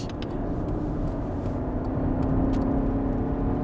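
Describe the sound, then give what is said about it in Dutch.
A car engine accelerates steadily as the gas pedal is pressed deeper, a low continuous drone with a rising tonal hum as the revs climb, with faint clicks on top and no voices. “Kan eens even het gaspedaal dieper...”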